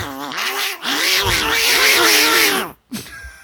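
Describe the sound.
A person imitates cats fighting or mating at night, letting out loud, strained, wavering yowls in two bursts, the second long and drawn out, ending with a brief gasp.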